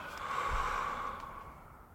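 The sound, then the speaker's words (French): A single long, deep breath drawn in, a soft airy rush lasting about two seconds that slowly fades, with no talking. “On prend une bonne respiration.”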